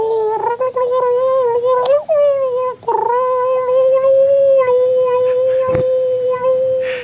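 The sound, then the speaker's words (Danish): In an old clip from TV4's morning television, a man's voice imitates a bird call with a long, steady, mid-pitched wavering tone that breaks off briefly twice, then carries on, a sharp click near the end. It sounds more howl-like than birdlike. “Han kunne efterligne 120 fuglestemmer.”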